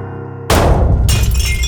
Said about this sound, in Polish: Coś się potłukło, upuszczone na podłogę.